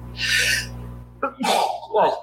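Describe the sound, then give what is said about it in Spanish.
A single fairly loud sneeze: a sharp breathy intake followed by a forceful, voiced burst, with a low steady hum underneath. “Salud.”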